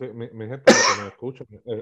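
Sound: cough into the microphone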